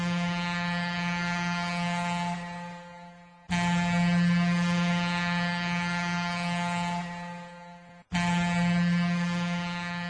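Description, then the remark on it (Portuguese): A ship's whistle sounds in long, loud, sustained blasts, signalling that the ship is about to dock. It is a deep droning tone rich in buzzy overtones, breaking briefly twice before starting again. No voices are heard. “Este apito do navio indica que estamos prestes a atracar.”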